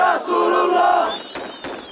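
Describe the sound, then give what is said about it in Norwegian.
A crowd of Hamas supporters in Ramallah on the West Bank, in the evening, protesting cartoons printed in Norwegian and Danish newspapers, shouts 'God is great' and 'Mohammed is the only prophet' in unison: a loud, sustained chant of many voices that breaks off after about a second, followed by scattered sharp bursts and quieter murmuring. “Tilhengere av Hamas viser sin avsky etter at norske og danske aviser har trykt tegninger som de oppfatter som blasfemiske.”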